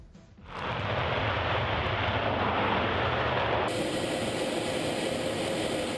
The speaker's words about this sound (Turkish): Bugün ve yarın F-16 savaş uçakları yüksek ve alçak irtifadan uçacak. Test uçuşu yapacak.